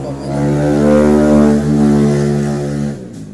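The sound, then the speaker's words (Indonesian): A motorcycle engine drones loudly with a steady harmonic whine, swelling slightly as it passes by, then cutting off abruptly near the end. “motor apa tuh motor gitu mah esmometik iya suaranya”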